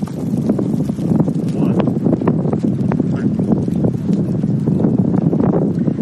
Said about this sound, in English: I think we're good. That was just a gust. But I apologize in advance, everyone who's live streaming. If I end up being upside down, that's because of the wind.